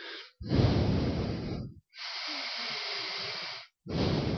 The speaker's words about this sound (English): He plays it very beautifully, but what's stunning to me is that if you listen hard, you, it's not that he's he's not doing a Gould like humming, it's that you can hear him breathing, that's all.